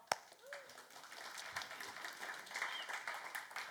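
An audience breaks into applause for a volunteer, a dense patter of many hands clapping that builds after a sharp first clap and stays steady at a moderate level, with a few faint voices mixed in.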